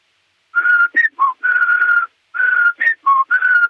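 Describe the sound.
A person whistles a short melody imitating a classic town carillon chime, two matching phrases of sustained and stepping notes separated by a brief pause, with no talking.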